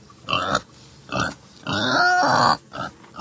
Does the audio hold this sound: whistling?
no